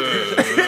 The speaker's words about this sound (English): that was a burp. That was a good one.